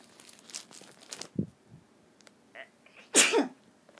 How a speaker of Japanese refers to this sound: くしゃみ出たくしゃみ出たじゃないよ